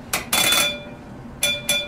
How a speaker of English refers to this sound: She moved across to the shiny brass ship's telegraph and pulled the levers back and forth to send the captain's orders down to the engine room.